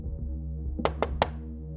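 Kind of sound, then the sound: impact, knocking on a door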